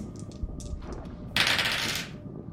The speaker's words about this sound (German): Du würfelst mir bitte einmal auf Stärke.